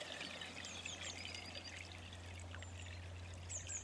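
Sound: flowing stream water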